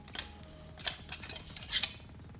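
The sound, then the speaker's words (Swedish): Small metallic clicks and scraping as tripod legs are unscrewed from the underside of a GoPro accessory mount, with a few sharper ticks in a quick irregular rhythm and no talking. “Men man kan även skruva loss eh, stativfötter här på undersidan.”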